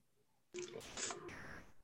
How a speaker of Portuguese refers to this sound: Peraí que eu vou ter que tossir só um instantinho, bem nessa hora. Quem sabe faz ao vivo, meu.